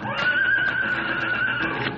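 A horse whinnies loudly, one sustained, quavering neigh that holds steady for about two seconds with no voices over it.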